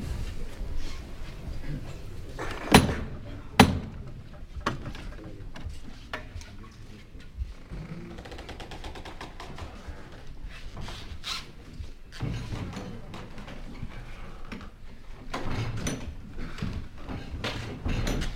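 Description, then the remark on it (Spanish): A heavy convent courtyard gate door on Busto Tavera street unlatches and opens with two sharp mechanical clunks, followed by faint creaks and shuffling against a hushed outdoor background with no talking, as a religious procession waits at the door. “Estamos ya en la misma puerta del compás que se tiene que abrir de forma inminente.”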